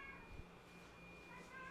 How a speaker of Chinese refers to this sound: 猫猫在叫， 我们不是，我们现在是喵喵富翁， 真的是啊， 哦， 真的是 获得很多喵喵。